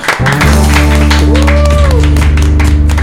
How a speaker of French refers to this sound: On peut applaudir